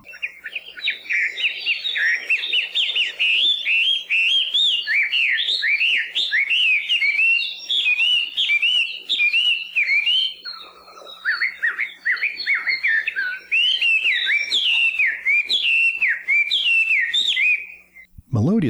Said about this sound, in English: This song, which can be described as a long series of paired notes and melodic whistles with some mimicry of other bird songs mixed in